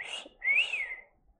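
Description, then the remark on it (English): A person whistles two notes: a short breathy one, then a longer tone that slides up and back down before fading. No one speaks. “Can you whistle? Um, do you know how to whistle?”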